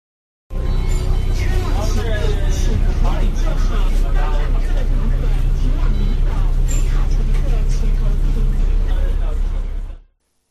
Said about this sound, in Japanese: えバスの車内ということで、まあ、走行音などの雑音があってだいぶ臨場感のある音声だったんですけれども、うん、よく聞くとあの女性の声でアナウンスがありました